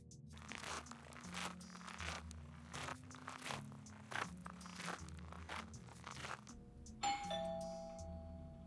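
Several seconds of crunching, rustling noise over a low hum, then a house doorbell rings once late at night near the end, a bright ringing tone that lingers and slowly fades. No one speaks.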